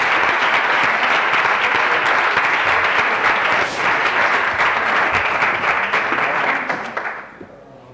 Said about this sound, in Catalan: tot i així se'ls ha d'aplaudir molt fort perquè has fet un treball excepcional. Si plau un fort aplaudiment